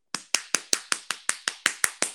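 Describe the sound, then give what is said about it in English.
A quick, even run of about eleven soft, muffled hand claps, each a short dull slap with a brief decay, with no talking. “why are your claps like you're just smashing pillows against one another?”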